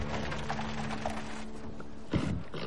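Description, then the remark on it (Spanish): Hooves clop unevenly as a horse-drawn carriage slows to a halt in front of a building, with wheels and tack rattling over a steady low hum and some street noise. “Un carruaje para frente a un edificio.”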